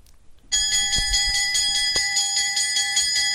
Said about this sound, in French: La cloche a sonné, ça signifie la rue est à nous que la joie vienne.